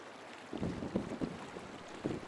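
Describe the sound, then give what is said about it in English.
Wind rushes steadily over the open ocean, with low, rolling surges of ocean swell rising and falling beneath it, as whalers in boats hunt a whale before a squall. The sound is fairly soft and continuous, with no voices present. “Starbuck whispers to his men as the wind goes by and the ocean swells.”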